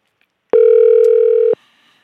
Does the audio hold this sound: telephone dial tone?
yes